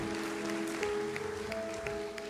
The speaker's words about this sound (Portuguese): Dá para aplaudir a Deus?